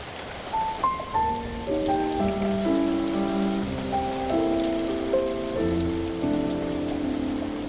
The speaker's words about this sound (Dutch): Het regent in onze lage schoolplaats. Het water valt op onze hoofden, overal